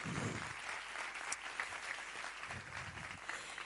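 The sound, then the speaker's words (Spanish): A crowd applauds steadily, a dense wash of many hands clapping at an even level throughout, with a brief low murmur at the start and again near the end. “un aplauso, por favor.”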